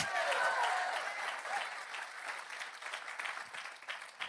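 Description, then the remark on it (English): An audience at Oceans Church claps hands during a sermon in a sparse, scattered burst of applause that starts fairly loud and thins out, the dense patter of many hands tapering into lighter, uneven claps. “I appreciate the 10% hand clap.”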